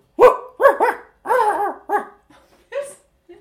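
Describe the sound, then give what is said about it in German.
A person imitates a dog barking with about five or six short, voiced woofs in quick bursts, fairly loud, trailing off into a softer yip at the end. “ich weiß nicht, was süßer ist, dein Bellen oder das vom Pumuckl”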